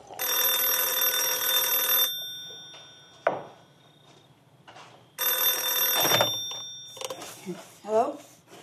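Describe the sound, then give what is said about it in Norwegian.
An old-style telephone rings loudly in the middle of the night in two long bursts separated by a pause of a few seconds, followed by a short, indistinct voice near the end. “Hun som ringer og melder sin ankomst midt på natten, vet ikke hvorfor hun gjør det.”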